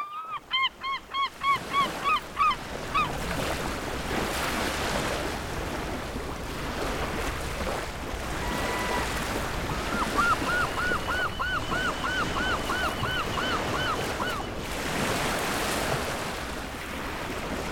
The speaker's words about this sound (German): Am langen Sandstrand im Süden der Insel Föhr läuft die Flut auf.